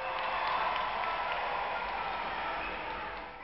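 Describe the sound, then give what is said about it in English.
A large crowd cheers and claps at a street parade in a steady, dense roar that holds at an even level throughout, easing slightly at the end, with no single voice standing out. “There were large balloons that looked like airships, but in the shape of people, bouncing down the street to an adoring crowd.”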